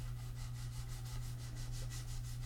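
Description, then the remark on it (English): Steady back-and-forth sanding strokes, about ten evenly paced rasping sweeps of a sanding block over the frets of a ukulele, continuous with no talking, over a low constant hum. “then you can use your sanding block”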